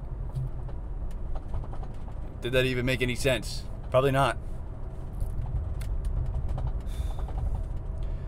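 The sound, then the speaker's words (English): Steady low engine-and-road rumble fills the inside of a car throughout, with a person speaking briefly partway through. “But I'm sitting in a car right now and I'm ranting away in the hopes that one day I can maybe rewatch this and fix something.”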